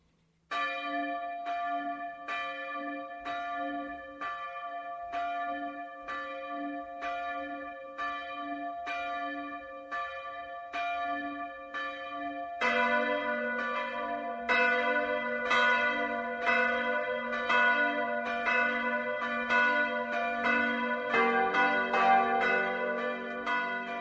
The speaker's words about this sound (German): Es ist 12 Uhr. Das Mittagsläuten kommt heute aus St. Georgen in Oberbayern.